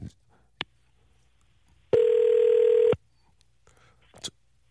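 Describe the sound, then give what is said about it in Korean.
A telephone line tone sounds once, a steady electronic buzz-tone lasting about a second, loud and clear, with a few faint clicks and a short knock before and after, as a call is placed to a listener. “아, 7736님한테 전화 한번 걸어볼게요.”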